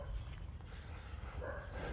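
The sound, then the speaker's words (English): A dog barks faintly outdoors, a short call rising near the end over a steady low wind-like rumble, with no one speaking. “Right now, there is a dog constantly barking in the background.”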